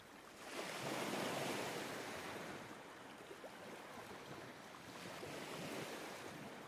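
Ocean waves surge onto the shore in a steady, broad wash, swelling loudly early on, easing slightly, then building again near the end, with no voices present.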